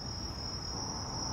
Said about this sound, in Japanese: セミの鳴き声があまりにうるさいとかねあのお話ししてる時にはちょっと分かんないような後になって気づくようなことって結構あるんで